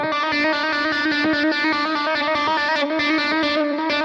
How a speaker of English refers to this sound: And then finally, you're going to set your third finger down. And again, these two can be free or you can set them down, whatever you like. And you're going to do a hammer on from your third to your pinky.